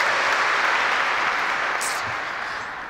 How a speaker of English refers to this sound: And I hope I'm not the only person who's glad to be here this morning. If you're glad to be here, just clap.